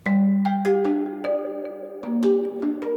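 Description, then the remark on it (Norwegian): A phone rings with a melodic electronic tune, a quick run of bright plucked notes played loud, with no voices present. “han Sture Pedersen må svare på telefoner døgnet rundt”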